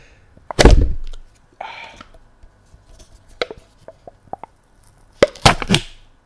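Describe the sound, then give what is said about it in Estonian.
A package of beef jalami snack is opened with a sharp pop, then crinkling rustles and small clicks, ending in another burst of loud tearing and crackling plastic. No one speaks. “ühesõnaga, ma teen selle lahti. Te kuulete seda? Te kuulete seda häält”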